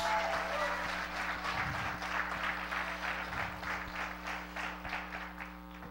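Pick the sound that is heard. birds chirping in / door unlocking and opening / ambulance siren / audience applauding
audience applauding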